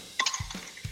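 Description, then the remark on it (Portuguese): A vending machine mechanism whirs into action as someone buys water from it: a couple of sharp mechanical clicks followed by several dull, heavy thuds, fairly loud, with no voices. “Que barulho é esse? Você tá roubando a máquina?”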